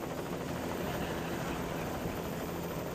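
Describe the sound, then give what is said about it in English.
Steady, loud helicopter rotor and engine roar, recorded by someone hanging out of a helicopter in flight over Chiapas, Mexico: a dense continuous drone with fast rhythmic chopping running unbroken throughout, no voices. “You can turn up the audio a little bit because I was hanging out of a helicopter.”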